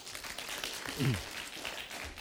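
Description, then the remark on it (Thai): A crowd claps hands for God after a prayer during a Christian teaching, a dense, steady patter of many people applauding, with a brief voice rising in the middle. “เราตบมือให้พระเจ้าดีไหมครับ”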